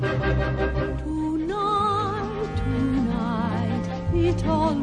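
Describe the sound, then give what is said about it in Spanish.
A lush orchestral passage plays on its own as the introduction to a romantic song from a musical, strings sustaining warm, swelling tones with gentle vibrato, building a slow romantic opening at steady moderate volume. “Ahora viene Tonight, que claro, la flecha ya de Cupido no.”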